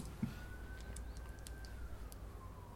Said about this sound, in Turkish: Aha Ambulans geçiyor. Nasıl abi canlı meşhur olarak? Ambulans. Evet meşhur ambulansımız bu.